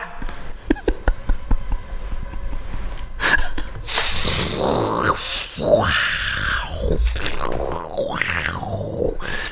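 After a few sharp clicks and taps, a loud, rough tiger growl rises and swells in several long, snarling bursts, apparently voiced by a person imitating the animal.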